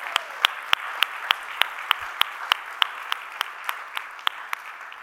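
An audience applauds steadily for about five seconds, a dense wash of clapping with sharp, evenly spaced individual claps cutting through in a quick regular beat. No one speaks.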